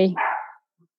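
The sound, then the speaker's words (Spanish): A dog lets out a single loud bark, a brief harsh burst lasting about half a second, followed by silence. “ya sé, tengo que estar cuidando esto del micrófono porque ese señor no deja de ladrar.”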